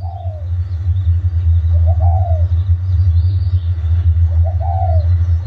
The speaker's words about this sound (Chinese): 哦，原来是这个， 很耳熟， 很耳熟。 我们比如就去野外啊，山上有时候有听到， 对， 或者是其实都市里面也会听到，对，这个就是斑鸠的声音。